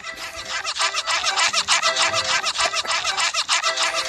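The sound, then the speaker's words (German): Shoes squeak with each step while being worn, over and over in a fast, uneven rhythm, a steady stream of shrill, rubbery chirps that stay loud throughout with no one talking; from a 10-hour compilation video. “wenn ihr die Schuhe halt anhabt, dann quietschen die so.”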